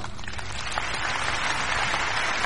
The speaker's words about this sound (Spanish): Me he quitado un pendiente. Un aplauso para mí, por favor.